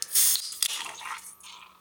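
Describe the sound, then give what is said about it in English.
A can of 0% alcohol Guinness cracks open with a sharp click, then a loud rush of fizzing hiss, a second snap, and a long foaming hiss that slowly fades. No one speaks. “Well, it certainly sounds like a Guinness when you open it.”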